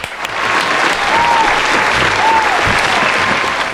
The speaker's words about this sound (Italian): Beh, grande, un applauso. un ah, applauso. Dal vivo, vero applauso.